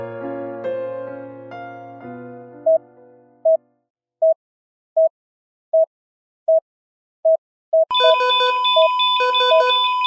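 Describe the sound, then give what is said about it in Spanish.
A few soft piano notes fade into a steady series of short electronic beeps, then a loud, warbling phone ringtone cuts in abruptly and repeats its pattern near the end. “pasado ya dos semanas desde que sonó el teléfono y la vida se detuvo.”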